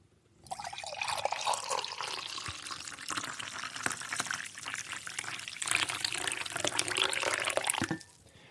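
Liquid pours steadily into a large Donald Duck mug from Disneyland Paris that holds about half a litre, for about seven seconds, a broad splashing rush that holds fairly even in loudness before tapering off abruptly, with no voices over it.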